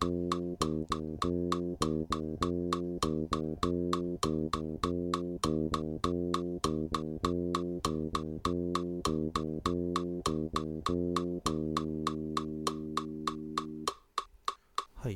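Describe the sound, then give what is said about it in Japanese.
A plucked string instrument, likely a bass, repeats a sixteenth-sixteenth-eighth note rhythm (ta-ta-tan) over and over at a steady moderate tempo as a practice exercise, played alone, then stops with a final ringing note. “でまずはですねこの1拍ずつ練習してる時はこのシンコペーションをまず無視して練習したいと思うので3拍目ですね16分音符16分音符8分音符タタタンタタタンというリズムをまずやってみたいと思います。”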